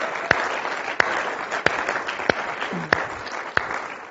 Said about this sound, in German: Komm, lass uns Jesus nochmal einen Applaus geben.